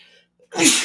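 A single sharp sneeze bursts out after a brief quiet intake of breath, loud and explosive with a breathy, hissing spray.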